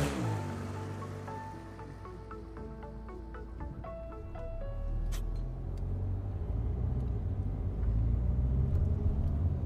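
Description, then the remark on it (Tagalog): A car engine comes to life after a few faint ringing tones, then a low, steady rumble swells and grows louder as the vehicle pulls away, with no one talking. “Nagbigay ito ng tipid ng ngiti sa akin mula sa rearview mirror bago pinaandar na ang sasakyan.”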